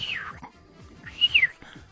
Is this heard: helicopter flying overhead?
no